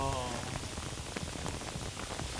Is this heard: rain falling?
yes